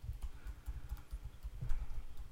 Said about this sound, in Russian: А, я сейчас, подожди, буду стучать по клавиатуре и...